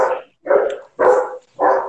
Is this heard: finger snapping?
no